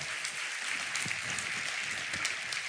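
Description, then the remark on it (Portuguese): A church audience applauds to the Lord, many hands clapping together steadily in a dense, continuous wash of crackling sound with no voices over it. “Pode aplaudir ao Senhor, que Ele é digno de toda honra e de toda glória.”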